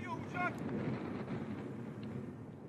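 A heavy, continuous roar and rumble from a Russian fighter jet, shot down by Turkish forces on 24 November 2015, crashing in flames near the Turkey–Syria border, steady, with brief faint voices calling out near the start.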